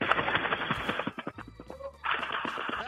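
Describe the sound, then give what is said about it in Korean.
A person performs a vocal imitation of a flock of pigeons taking off, making a rapid, breathy fluttering of wingbeats that briefly thins out midway, then surges again, fairly loud. “그 비둘기 때 날아가는 소리를 간단하게 한번 해보겠요 비둘기 때로 날아가는 소리입니다. 여러분 한번 들어보십시오.”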